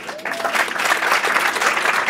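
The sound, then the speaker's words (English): An audience bursts into steady applause, a dense wash of many hands clapping that starts abruptly and holds at a fairly loud, even level throughout. “Clap that up, clap that up.”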